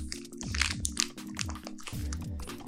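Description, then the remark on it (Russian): Crisp crunching as a dry, papery hop cone is bitten into, several brittle crackles over a few seconds with a low steady tone underneath and no talking. “Даже чуть-чуть откусил.”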